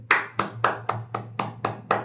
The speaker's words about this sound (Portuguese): Vamos juntar as mãos e bater palmas para ela por um tempinho